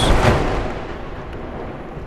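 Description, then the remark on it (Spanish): A loud crash of thunder from a lightning strike destroying a house bursts out all at once, then fades into a long, low rumbling roar that lingers and slowly dies away. “Un momento después llegó el titánico relámpago de relámpagos, destruyendo esa casa maldita de secretos inenarrables y trayendo el olvido que por sí solo rescató a mi mente.”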